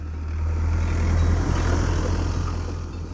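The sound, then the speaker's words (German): A heavy tractor pulling a large blue slurry tank rumbles with a deep, steady drone along the neighbouring road, growing louder as it approaches, peaking midway and then fading slightly as it passes. No voices are heard. “Auf der Straße nebenan fährt ein Traktor mit einem großen blauen Güllenfass vorbei.”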